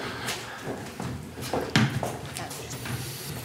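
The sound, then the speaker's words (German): A door is pushed and held open onto the inner courtyard of a former malt coffee factory, with a few sharp knocks and rattles of the latch and frame over a low background murmur, followed by faint shuffling. “Ich halte mal die Tür auf.”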